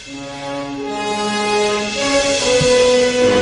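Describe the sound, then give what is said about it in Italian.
Orchestral film-style theme music with loud, sustained brassy chords that shift pitch a few times and swell toward the end, played on its own without any talking as a quiz to guess a car associated with it. “Senti Vediamo se riconosci vai, che vai. macchina potrebbe essere associata a questa musica.”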